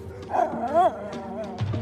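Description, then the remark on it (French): A pack of hunting dogs, following a huntsman on horseback into a dark forest, barks and yelps together in a short, overlapping burst, the calls rising and falling and fairly loud. “Alors le grand veneur éperonna son cheval, suivi de sa meute de chiens, et disparut dans la sombre forêt.”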